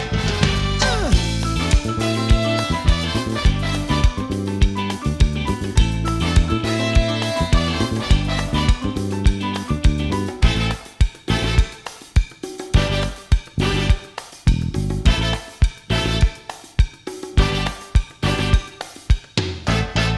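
A loud rock song with full band, driving drums and bass, and a dense sustained texture that breaks into punchy, staccato hits with short gaps partway through. No one talks over it.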